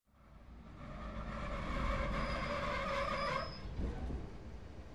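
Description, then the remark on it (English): A train rumbles along the rails with a steady low roar and tonal screeching bands, building from the start, holding loud, then easing slightly near the end. No one speaks. “I'm on the train.”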